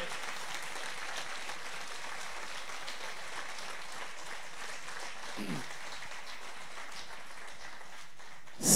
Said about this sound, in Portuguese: Você pode aplaudir ao Senhor.